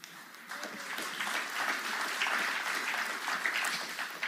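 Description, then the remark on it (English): Sustained applause from a large crowd, including a choir and the back row, a dense, steady wash of many hands clapping at once, fairly loud and continuous for several seconds with no voices standing out. “Now, choir, don't let the back row beat you at the clapping.”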